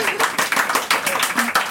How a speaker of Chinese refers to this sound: Hello， 大家要再一次掌声鼓励吗？